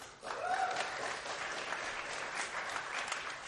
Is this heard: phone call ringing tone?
no